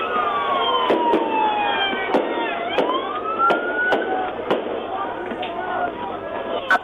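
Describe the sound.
Fireworks crack in scattered, sharp bursts, about eight pops at irregular intervals, over loud wailing sirens and a busy, noisy street scene with a mob and voices in the background, on Division Street in Chicago.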